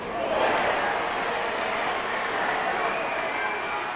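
A large crowd of baseball fans at the Little League tournament in South Williamsport, Pennsylvania, cheers and claps in a steady, dense roar of voices and applause that holds loud and unbroken throughout, with no single voice standing out.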